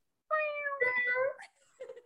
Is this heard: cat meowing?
yes